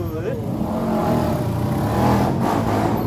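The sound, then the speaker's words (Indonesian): A motorcycle engine sputters, running unevenly and fairly loud for about three seconds, its low rumbling drone swelling slightly toward the end, with muffled voices mixed underneath. “motor lo nyetut nyetut begitu kan bang”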